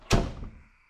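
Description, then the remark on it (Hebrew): The creaking wooden door of a house on a kibbutz is shut quickly with a single heavy thud that rings briefly and fades out within half a second. No voices are present. “דלת העץ של הבית חרקה, ואני סגרתי אותה מהר.”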